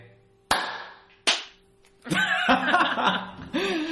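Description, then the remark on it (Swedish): After a count of one, two, three, a group tries to clap in unison, but it lands as two loud, sharp claps about a second apart, each ringing briefly, followed by several people laughing. “Det var ganska bra klapp.”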